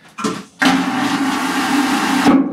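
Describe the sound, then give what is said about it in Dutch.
A porcelain vacuum toilet, working like those on airplanes and trains, flushes when its button is pressed: a brief click-like burst, then a loud, steady rushing roar as it sucks a large amount of air into the sewer, with a low hum underneath, lasting under two seconds before cutting off abruptly. “zuigt eigenlijk een heel grote hoeveelheid lucht aan die de menselijke afvalresten, in papier, gewoon meezuigt in de riool.”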